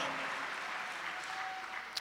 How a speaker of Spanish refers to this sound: Dale un aplauso a Cristo, amado hermano. A su nombre sea la gloria. Gloria a Dios.